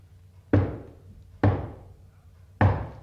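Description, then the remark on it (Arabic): Three firm, heavy knocks on a door, spaced unevenly about a second apart, each a sharp low thud with a short decay, with no talking. “خبطة عالي وما يفتح حنيشة”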